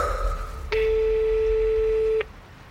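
Constance's mobile phone rings with a single steady electronic tone, pitched fairly low with bright overtones, that starts abruptly, holds for about a second and a half, then cuts off cleanly. No one speaks.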